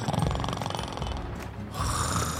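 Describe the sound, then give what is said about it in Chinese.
A loud, rumbling snore with a rough, buzzing rattle, pulsing rapidly through a long breath, followed by a brief pause and another raspy, droning snore, from a sleepy driver who has fallen asleep in his car while waiting at a red light. “他竟然睡着了”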